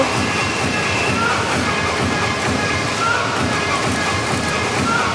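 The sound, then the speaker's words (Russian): Hockey spectators at a game in Slovakia roar during a commercial time-out at 5-0, after the scoreboard cube asked them to make noise. A steady, dense wall of noise holds at an even, loud level throughout, with no single voice standing out from the crowd. “Хорошее настроение у зрителей. Написали там на Кубе что-то типа «пошумите». Но вот они и шумят вовсю.”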